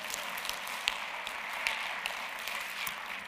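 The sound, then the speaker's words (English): A crowd claps in a steady, dense patter of many hands, fairly soft overall, with a few sharper individual claps popping out now and then. No one speaks. “Just clap if that's you.”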